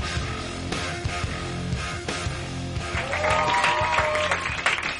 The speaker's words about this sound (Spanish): Un aplauso fuerte para vosotros y un aplauso para David Suárez.